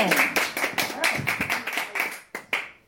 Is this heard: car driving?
no